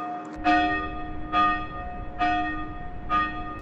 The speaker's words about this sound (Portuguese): Era um sino pequeno. É aquele que agora eles tiraram dali e colocaram ali na parede da casa 3 e que toca lá, dá umas três batidinhas para avisar que vai começar o culto.